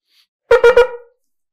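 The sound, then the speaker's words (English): Three quick, closely spaced shofar blasts, a truah of three small sounds as explained by Rashi, bright and brassy, with the last one ringing out briefly before fading. No one speaks. “Shitas Rashi is that the Trua is three small sounds, Shkailas Kol which for explanation purposes we're going to call Trumitin.”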